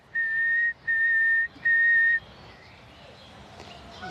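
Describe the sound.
A person whistles three long, steady notes at the same pitch, separated by brief pauses, to challenge a nightingale in Berlin's Tiergarten, then falls silent, leaving only faint outdoor background noise.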